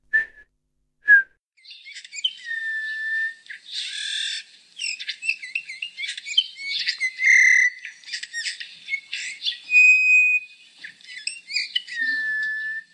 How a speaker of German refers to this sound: Und den Gimpel gibt gibt's, oder hast du gesagt, der, äh, sein Ruf ist ein trauriges Flöten? ja, also ähm, das ist halt jetzt ziemlich einfach. Man könnte es auch nachpfeifen.